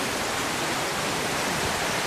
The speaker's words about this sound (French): voyez, on, on aperçoit les deux cascades, enfin c'est une seule en plusieurs étages, mais en fait il y en a, cinq ou six étages comme ça.